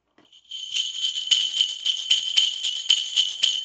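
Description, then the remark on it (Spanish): Bright, continuous jingling of small jingle bells, a percussion instrument shown to children in a music lesson, shaken steadily with rhythmic surges in the shimmer, fairly loud, no voices. “Cascabeles.”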